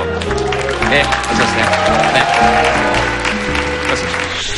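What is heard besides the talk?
audience applause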